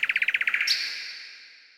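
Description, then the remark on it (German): A nightingale sings a rapid run of about ten clipped, rhythmic notes, then a sustained bright whistle that slowly fades. Clear, with no voices. “Die Nachtigall - Die Diva unter den Vögeln”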